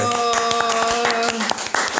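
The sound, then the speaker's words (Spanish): Applause for a female guest from a small group: quick, dense hand claps running steadily for two seconds, with a sustained held tone sounding through the first part of the clapping. “Un aplauso para nuestra invitada.”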